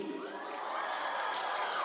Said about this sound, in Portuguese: Cadê a galera do radical. Onde é que está? Deixa eu ver, dá um grito aí.